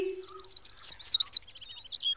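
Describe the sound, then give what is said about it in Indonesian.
A bird chirps in a quick, warbling run of high, twittering notes lasting about two seconds as it flies away, clear with no voices present. “Kue ya berubah menjadi seekor burung yang amat cantik. Burung itu lalu terbang pergi.”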